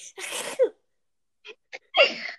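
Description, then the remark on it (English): A voice imitates a friend's two loud, exaggerated sneezes, each a harsh noisy burst ending in a strained vocal squeak, separated by short sharp inhales, with no talking. “One of my friends they sneeze hey, like the like the ugliest way you could possibly sneeze.”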